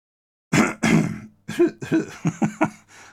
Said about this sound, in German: ich muss nochmal husten.